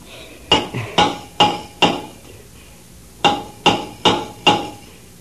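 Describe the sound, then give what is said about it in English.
A hammer taps on a submarine's metal hull, answering the signals of a rescue diver outside, in two deliberate sets of four evenly spaced, ringing clanks, separated by a short pause. The strikes are loud, with no voices. “You take the hammer and answer the signals.”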